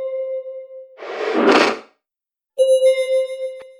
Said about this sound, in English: The closed door didn't automatically open to her presence. She had to search for the manual release lever. It was the first time she ever had to do this, so it took some time.